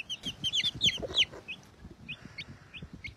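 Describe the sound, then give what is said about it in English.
Chickens cluck and chirp in a quick, busy flurry of short calls, then settle into scattered softer clucks over low rustling and shuffling. “I am the chicken oh, whisperer.”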